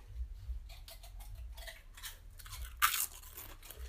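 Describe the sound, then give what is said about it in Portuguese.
Five crunchy bites into a snack, a quick series of crisp crunches with chewing in between, the last bite loudest, over a low steady hum and no voices. “E no toque de cinco roídas de salgadinho, hoje”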